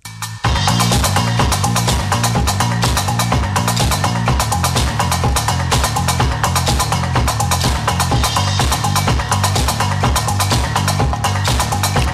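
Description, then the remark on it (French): Loud, steady instrumental music from Disarm, a musical installation by Pedro Reyes whose instruments are built from firearms, with a repeating metallic rhythmic pulse and dense layered tones running throughout, no voices. “Et c'est le génial Pedro Reyes qui a créé une installation musicale qui s'appelle Disarm, désarmé en anglais, et euh, qui sont des instruments de musique créés à partir d'armes à feu.”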